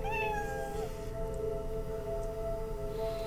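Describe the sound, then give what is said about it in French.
A mechanical plush toy cat in a bedroom starts making noise by itself: a steady, electronic meowing tone that slides downward at the start, then holds a sustained synthetic hum, fairly loud with no voices. “Le chat en peluche mécanique se met à faire du bruit tout seul.”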